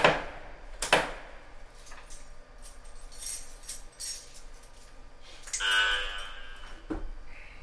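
A few sharp wooden knocks and clatters, then a wooden cover scraping as it is slid back to open a control desk on a train, followed by a metallic click of a key going into the lock.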